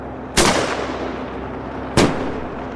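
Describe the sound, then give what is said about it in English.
Two loud, sharp bangs about a second and a half apart, each hitting hard and trailing off in a hissing decay: underwater explosives and shotgun bangers set off by men on a boat against sea lions, with no talking. “And if that takes underwater explosives and shotgun bangers, then that's what'll happen.”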